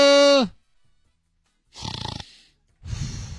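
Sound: snoring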